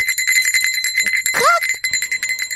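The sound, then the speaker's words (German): A small hand bell held in one hand rings steadily with bright, rapid metallic strikes that shimmer and sustain, with a brief sliding chirp midway. “Aber im Moment, wenn ich die Glocke in die eine Hand nehme und den Bauch mit der anderen Hand streichle, dann geht das vielleicht.”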